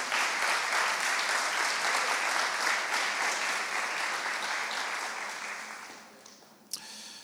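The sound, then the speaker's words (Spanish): A church audience gives God a strong round of applause in a steady, dense wash of clapping that holds strong for several seconds, then tapers off, ending with a single sharp clap or knock near the close. No one speaks. “Dale un fuerte aplauso a Dios si estás de acuerdo.”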